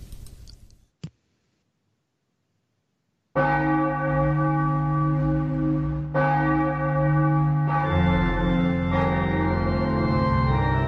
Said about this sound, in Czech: Takže dávám znělku.